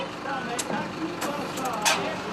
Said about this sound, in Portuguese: Dentro do ônibus escolar, os passageiros estão entusiasmados com o novo itinerário. O micro-ônibus segue levantando poeira pelas estradas agrícolas de Santa Luzia, região metropolitana de Belo Horizonte.